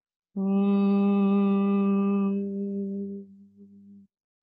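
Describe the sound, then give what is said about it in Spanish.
A single long, steady hummed 'mmm' from a voice, made while exhaling in a breathing exercise with the ears covered, held for nearly four seconds before softening and trailing off, imitating the drone of a buzzing bee. “Y vas a inhalar y al exhalar vas a hacer una M como el sonido de una abeja.”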